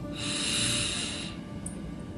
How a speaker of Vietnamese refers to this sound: tiếp theo đó chúng ta nhắm mắt lại rồi đặt cái lưỡi của mình lên trên cái nướu bên trên rồi sau đó thì chúng ta hít vào một hơi thật là sâu